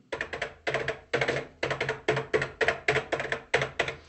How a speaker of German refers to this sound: Ja, ihr kriegt den alten Brotkasten zumindest eine Replik davon im 1 zu 1 Format und die Tasten funktionieren jetzt. Man kann wirklich auf der Tastatur tippen.